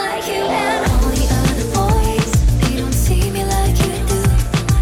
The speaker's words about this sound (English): True, truly, what a what a great song.